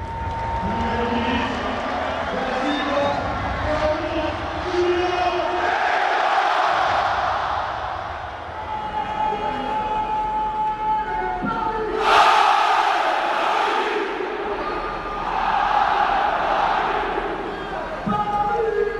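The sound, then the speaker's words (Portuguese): A football stadium crowd of Paris Saint-Germain fans at the Parc des Princes stadium roars and chants without pause, a dense wall of voices with sung tones running through it, swelling louder in waves partway through and again toward the end. “impressiona aqui no estádio do Paris Saint-Germain é a torcida, especialmente para quem está acostumado a cobrir a Premier League.”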